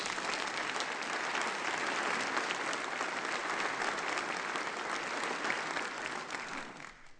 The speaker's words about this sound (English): We are grateful. Would you give these people a round of applause?